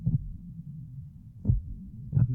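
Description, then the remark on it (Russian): The heart of an old man thumps slowly and dully, muffled, three low beats spaced evenly over a soft rumbling background, with no one speaking. “Но долгие минуты сердце его еще глухо стучало”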